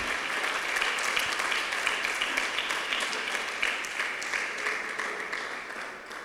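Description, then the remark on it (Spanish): An audience applauding the Lord, dense overlapping claps filling the whole stretch at an even, fairly loud level, with no voices standing out above it. “El otro aplauso al Señor, hermano.”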